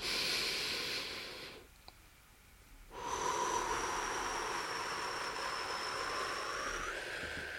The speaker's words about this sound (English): Breathe in, in and out through your nose for one minute.